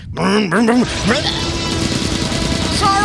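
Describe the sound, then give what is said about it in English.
A voice imitates a truck pulling forward really fast, with a rising, revving vocal engine whine that sweeps upward and then trails into a sustained, noisy rumble, fairly loud. “So if they pull forward really, really fast, balance.”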